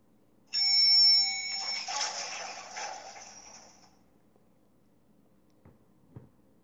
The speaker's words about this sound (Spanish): Pasaron los segundos, se hacían eternos, hasta que su nerviosismo fue interrumpido por el pitido del ascensor.